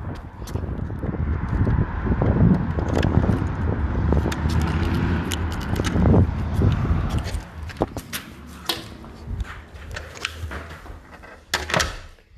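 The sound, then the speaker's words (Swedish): A motorcycle roars past on an almost empty street in Stockholm, its loud engine rumble filling the first several seconds before fading away, leaving wind buffeting and scattered clicks and knocks. “Det var en motorcykel. Oh fuck, det är en motorcykel!”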